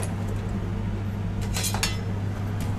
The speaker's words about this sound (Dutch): Ik ga kaas raspen.